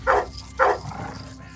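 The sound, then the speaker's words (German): A chained dog barks aggressively twice, sharp and forceful, with a short pause between the two loud barks, followed by a quieter low rumble. “Ich mache mich größer als ich bin, lauter als ich bin und wilder als ich bin.”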